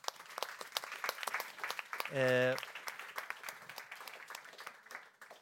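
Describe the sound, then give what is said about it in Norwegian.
An audience at the close of a panel discussion applauds the panel and attendees, dense steady clapping that carries through from start to finish, with one voice briefly sounding a drawn-out hesitation partway through. “En applaus til alle her.”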